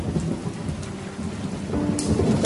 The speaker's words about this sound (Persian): از اون بارون ریز ریزاست که خیلی دوست دارم